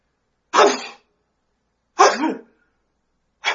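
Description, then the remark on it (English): A preacher imitates sneezing, making three loud, abrupt sneeze sounds, each spaced by a second or more of silence, with the last one cut off at the end. “seven times a sneeze.”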